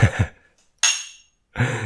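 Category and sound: household object, glasses clinking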